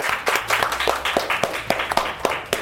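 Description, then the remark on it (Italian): Applause from a small group for the program Africa in cucina, with sharp individual claps standing out over a steady wash of clapping noise throughout, moderately loud. “Un applausone, siamo qua con la signora Africa in cucina.”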